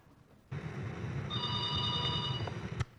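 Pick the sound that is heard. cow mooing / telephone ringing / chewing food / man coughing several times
telephone ringing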